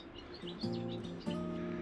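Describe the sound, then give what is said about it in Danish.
Gulls give harsh, drawn-out calls while swallows twitter in quick high chirps above them, a busy chorus of seabirds and small birds at the harbour on the far tip of the island of Nyord. “Mågerne skraber og svalerne piper.”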